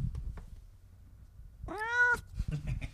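A single clear cat meow, about half a second long with a rising-then-falling tone, after a stretch of low rustling and soft background noise.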